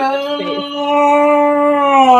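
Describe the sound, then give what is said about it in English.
A dog named Fitzgerald lets out a single long, loud howl, holding a steady, slightly wavering tone for a couple of seconds, with little else around it. “We started that with Fitzgerald uh, to get him to start to stop howling because dad got a job and so dad is out of the house a whole lot more mm-hmm.”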